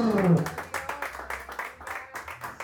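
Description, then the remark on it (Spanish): A crowd claps together in a steady, rhythmic beat, the bright slaps at moderate volume, with a voice briefly audible at the very start; the applause is given to the Lord. “Denle el aplauso al Señor.”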